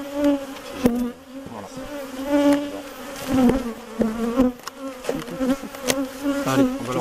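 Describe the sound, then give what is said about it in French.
Loud, steady buzzing of many bees right up against the microphone, a droning hum with wingbeat tones rising and falling as insects pass close, punctuated by brief taps and knocks. “ça dans le micro, ça fait un boucan.”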